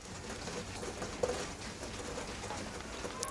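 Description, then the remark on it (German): Steady heavy rain, growing ever stronger, hisses and patters continuously in a dense, even wash of sound with no one speaking. “Wir, wir, müssen jetzt auch aufhören, der Regen wird immer stärker.”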